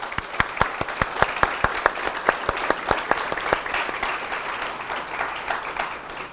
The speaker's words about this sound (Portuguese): Por lo tanto, yo pido aplausos a todos los organizadores, apoyadores y participantes. Ustedes.